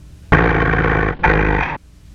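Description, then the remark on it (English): A loud roar of the shark from the film Jaws the Revenge in two bursts, the first long and the second shorter after a brief gap, with a broad, rumbling, growling texture and no talking. “If Michael Caine's performance in that film doesn't scare you enough, then surely the roaring shark will.”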